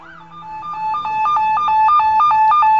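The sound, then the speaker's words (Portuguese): A police car siren blares in a rapid, steady alternation between two high electronic tones, loud and continuous throughout, with no voices. “Chega um carro de polícia.”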